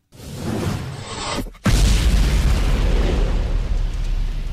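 A metal song from a new nu metal record plays as a loud, dense wall of distorted sound, cutting out for a split second before crashing back in even heavier with a pounding, booming low end.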